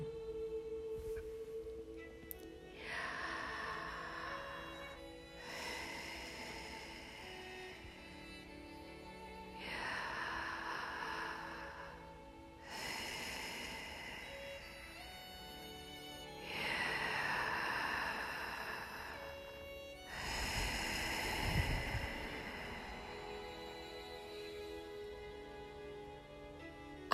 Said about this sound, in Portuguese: Se prestarmos atenção, é o que invocamos constantemente a partir do som da nossa respiração.